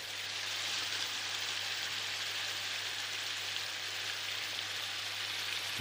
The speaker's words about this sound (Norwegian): Lyden av smør som freser i en panne. Jeg har faktisk ah. loopa det opp i 45 minutter på en CD som jeg har med meg overalt.